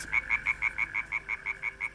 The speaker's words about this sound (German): Frösche. Kein Witz. Die haben mich einmal rund um die Welt geschickt in den gefährlichen dunklen Dschungel auf der Insel Sumatra, um Frösche zu beobachten.